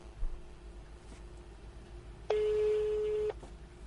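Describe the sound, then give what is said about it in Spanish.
A telephone ringback tone sounds once as a radio show places a call on air: a steady, low-pitched electronic beep lasting about a second, loud against a faint background hum, with no one speaking. “Estamos llamando a ver...”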